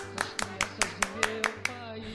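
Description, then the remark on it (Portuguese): Eight sharp hand claps in a steady, even rhythm, about five per second, clapping to open a children's radio programme, standing out crisply over a low, sustained tonal hum in the background. “Vamos começar o nosso programa batendo palmas para.”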